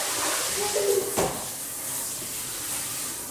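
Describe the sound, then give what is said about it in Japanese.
A shower runs steadily with a broad, constant hiss of spraying water. A brief clatter and a short tonal squeak pop up near the start before the even rush continues. “ちょっとシャワーシャワーうるさいからシャワーつなみにしてよ”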